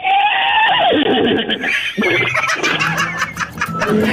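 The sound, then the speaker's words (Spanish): A man's voice mimics a horse's whinny, a loud, wavering neigh that rises and breaks into shaky, breathy fluttering over about four seconds, unaccompanied. “¿cómo le relinchas a la hora de hacer el amor?”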